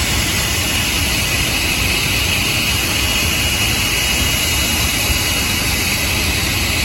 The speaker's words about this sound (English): I believe that's the Saudi jet. Yeah. Kind of loud in here. Shut, shut, shut it down. Shut it down. It's too noisy.